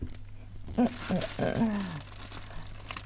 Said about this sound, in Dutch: Moet er gewoon tape omheen of zo, maar ik heb geen zin. ik doe liever dit. Dus ik doe nu gewoon een zakje over de zwanenhals heen. En dan doe ik met plakband. Want dit werkt wel.